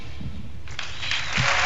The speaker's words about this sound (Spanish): Primer aplauso de la noche para Carmen Machi.